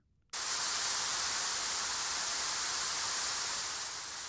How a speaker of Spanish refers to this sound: El ruido azul tiene concentradas frecuencias altas con unos pocos tonos profundos para equilibrarlo. Su sonido es parecido a cuando sale el agua de una manguera a presión.